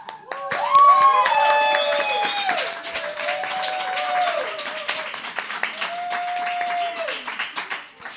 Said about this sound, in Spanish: Entón, un aplauso para elas.